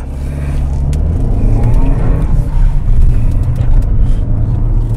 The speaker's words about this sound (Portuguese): O volante do motor também parece um pouco pesado, ó. Demora para baixar o giro, ó. Baixou agora.